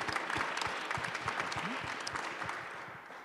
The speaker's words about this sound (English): So, round of applause for Aparna.